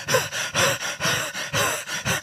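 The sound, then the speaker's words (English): A voice imitates heavy breathing, with loud, rhythmic gasping breaths in and out, about eight in quick succession, depicting David's three mighty men standing over him. “And there's the three standing over the top of his sack, right? Breathing heavy.”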